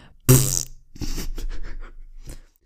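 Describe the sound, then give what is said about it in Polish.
A man farts loudly and abruptly in a quiet chapel among praying people, a rough, buzzy blast of about half a second that echoes through the chapel, followed by a stretch of muffled vocal sounds. “Momentalnie się przebudził i zastanawia się na szybko, kto był tak zdolny i pierdnął na cały regulator w cichej kaplicy wśród modlących się ludzi.”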